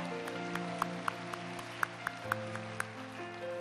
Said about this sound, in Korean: 우리 살아계신 하나님께 영광의 박수 올려드리겠습니다. 할렐루야.